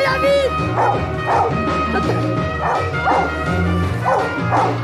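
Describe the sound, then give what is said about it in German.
A dog barks repeatedly, about five or six sharp barks spaced roughly a second apart, fairly loud, over a steady humming, tonal background. It is a blind dog in a film scene, with its boy finding a body in the snow by a chalet near Grenoble. “Es ist der Sohn Daniel, der die Leiche mit seinem blinden Hund findet.”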